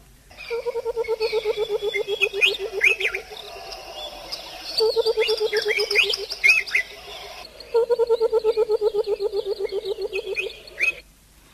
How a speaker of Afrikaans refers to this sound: Nou hy praat van vlei loeries en kom ons herinner net ons luisteraars die wonderlike roep van die vlei loerie.